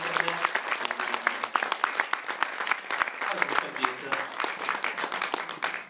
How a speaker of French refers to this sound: Alors, est-ce qu'on peut ensemble, en démarrant, avant de commencer, ben, pour commencer le message, est-ce qu'on peut ensemble applaudir et accueillir les gens qui nous joignent?